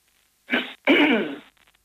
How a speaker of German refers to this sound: Dann legen wir auf. Sie hustet zwar, aber ich höre sie nicht reden.